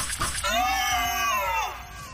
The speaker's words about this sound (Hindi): एक बार फिर दर्द से चीखने और चिल्लाने की आवाज पूरे होटल में गूंज उठी